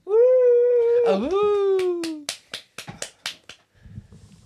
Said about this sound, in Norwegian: Store applaus.